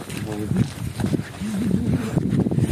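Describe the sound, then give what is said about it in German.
Steady wind rumbles and buffets against the microphone throughout, a constant noisy roar beneath voices of people talking. “Ich glaube, man hört uns auch kaum reden, weil es windet ein wenig.”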